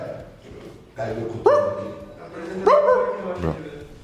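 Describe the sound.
A dog barks two or three times in short, sharp bursts, with a busy background of murmuring voices and room noise underneath.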